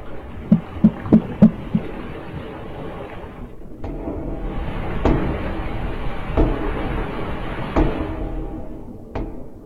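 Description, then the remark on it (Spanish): Underwater banging recorded during the search for a submarine with five people inside: a quick run of five dull, low thuds, then a steady murky rumble broken by a few isolated sharp knocks spaced several seconds apart. “escucharon sonidos y quiero que escuchen los sonidos de los ah, que andan buscando, ¿verdad?”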